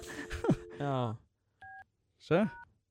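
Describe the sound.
Short, steady dual-tone keypad beeps from a phone being dialed, two or so brief tones, with voices talking before and over them.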